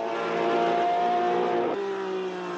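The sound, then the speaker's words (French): A Porsche 908 race car, fitted with camera boxes at front and rear to film during a race, roars loudly and steadily, its tone dropping sharply near the end as if the car passes by or shifts gear. “Malgré cela, cette Porsche 908 Speeder finira à la 9 position, parcourant 282 tours, soit 3798 km.”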